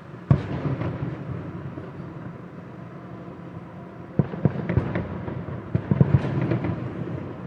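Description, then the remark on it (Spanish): Fireworks pop and crackle outside in Bogotá, heard from a house after Santa Fe won the Copa Sudamericana against Huracán, over a low rumbling background, with a sharp burst early on and a denser cluster of bangs in the last few seconds. “Y desde mi casa se oyen los fuegos artificiales.”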